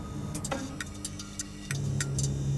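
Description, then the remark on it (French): A fluorescent neon tube flickers on with a quick series of sharp, irregular clicks over a low hum, then settles into a steady electrical buzz as it lights. “Le tube clignote, ça fait « cling, cling », et la lumière du néon s’allume.”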